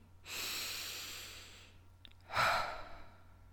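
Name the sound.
deep inhale and exhale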